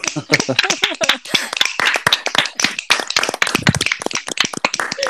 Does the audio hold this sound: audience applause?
yes